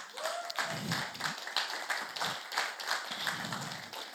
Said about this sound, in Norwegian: Applausen var til Sina.